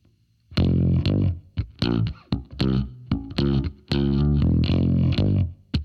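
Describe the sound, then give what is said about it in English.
A distorted, effects-heavy bass guitar plays a bass line slowed down, in separate notes, some short and some held, with a few chromatic steps and awkward intervals. It is loud, with no voices. “It flies by at a rate of knots, so I'll play it for you more slowly. Listen carefully to the note choice.”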